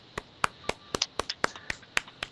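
A brief round of applause: about ten sharp, crisp hand claps in a loose, slightly uneven rhythm, moderately loud, with no voices over them.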